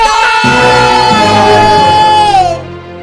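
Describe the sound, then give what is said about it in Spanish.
An audience shouts "no" loudly together in one sustained, overlapping outburst that holds for a couple of seconds before tapering off into quieter murmuring. “Bien, señores, he escuchado la palabra no como 50 veces en esto.”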